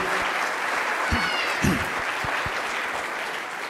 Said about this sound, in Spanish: Aplauso muy bonito esta representación. Muy bien.